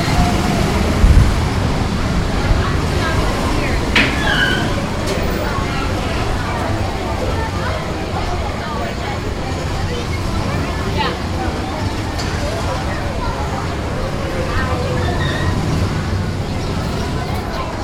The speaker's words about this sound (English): All that noise is not the LA freeway, it is the Autopia. I'm walking right by it.